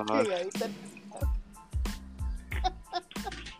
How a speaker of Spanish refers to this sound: Oh, se escucha el pipí. ¿Qué? ¿Se escuchó la mía? ¿Se escuchó la pipí? No, eh, tiene la cadena.